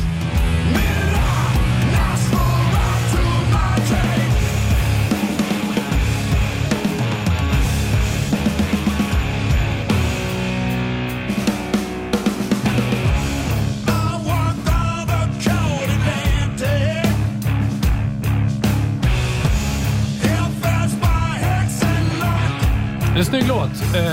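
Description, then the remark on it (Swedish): A loud, dense rock band track, one the band also played live, with a fat, punchy snare drum cracking through the mix, its hits growing sharper and more driving in the second half. “jag har såklart plockat ett spår som de faktiskt spelade live som heter”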